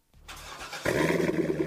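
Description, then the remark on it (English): A Corvette sports car engine cranks briefly, then catches and fires up into a loud, steady rumbling idle, with no talking. “You hear that? That's the sound of America's only sports car.”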